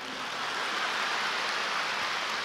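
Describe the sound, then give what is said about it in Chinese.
Steady, dense applause from an audience: many hands clapping at once into an even, hissing wash of sound that holds at a fairly constant level for the whole stretch, with no voices. “啊，来了，啊，这个好，啊，这个鼓掌还不不不少”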